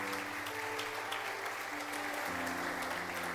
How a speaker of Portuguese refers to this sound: Quem pode aplaudir esse Jesus que é Senhor dos Senhores?